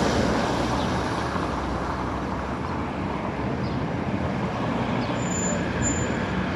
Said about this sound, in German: Nur die Autos stören ein bisschen.